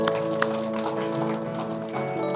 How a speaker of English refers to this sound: Wow, we give God a hand clap this morning.